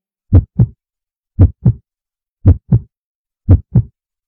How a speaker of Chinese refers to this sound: 没错，就是我们的心跳声，还有呼吸声。原来我们的身体里还有这么多的声音呢。